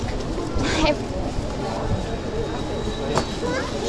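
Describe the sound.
Cars drive past on a city street, a steady rumble of traffic with a couple of brief louder swells as vehicles go by, faint indistinct voices in the background.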